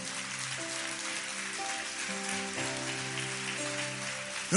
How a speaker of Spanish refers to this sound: Vamos, da ese aplauso al Señor fuerte.